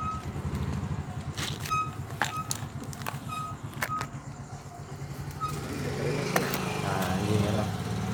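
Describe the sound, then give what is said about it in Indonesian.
A motorcycle engine rumbles in a narrow alley, its steady putter swelling louder and rougher toward the end as it passes, with a few sharp clicks along the way. “Lagi nyantai motor lewat.”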